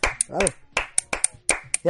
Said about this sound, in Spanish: el aplauso, este, ha sido el aplauso más triste de la historia de la radio televisión El aplauso más triste de la historia.